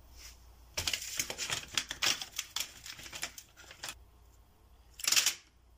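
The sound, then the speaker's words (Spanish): An alarm clock being set for a quarter to seven the next morning: a rapid run of sharp mechanical clicks and ratchets for about three seconds, then a pause and one short, brighter rasping burst. No one speaks. “¿A qué hora te pongo el despertador para mañana?”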